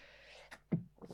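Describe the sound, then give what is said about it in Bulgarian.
A single sneeze: a breathy, hissing intake builds up, then one abrupt, forceful burst, followed by brief rustling. “Пардон, аз да, пак... на здраве.”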